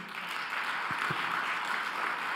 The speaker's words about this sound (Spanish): Dele otro aplauso fuerte.